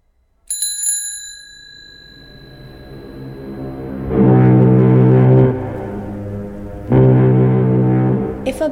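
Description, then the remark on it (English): A single bicycle bell ring fades out, followed by two loud, deep foghorn blasts, each held for over a second with a short gap between them. No one speaks. “Bicycle Bell wanted to be a foghorn, it would have to learn to choose how it began its sound.”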